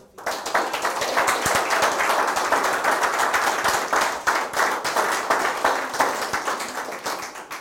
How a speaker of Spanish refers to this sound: Un fuerte aplauso a todos. Vamos, fuerte, fuerte.